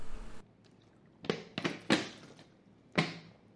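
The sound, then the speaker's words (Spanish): Wet gulping sounds as someone drinks water, picked up by a Shure microphone: four distinct swallows, three in quick succession and one after a short pause, with no talking. “Ah, se escucha como bebo agua, pinche micrófono verga.”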